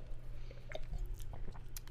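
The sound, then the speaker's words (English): Wet mouth sounds of someone taking a sip of wine, a few soft slurps and swallows over a steady low hum, with no talking. “I say as I sip my wine.”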